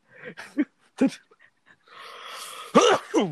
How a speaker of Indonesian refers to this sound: batuk gue